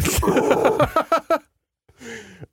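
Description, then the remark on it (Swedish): A voice imitates the wet snorting of a bear rearing up to attack with lots of water in its mouth while trying to breathe: a long, raspy, gurgling exhale, three quick snorts, a short pause, then a brief low voiced grunt, fairly loud. “Och det låter så också. för att den har massa vatten i munnen och försöker andas.”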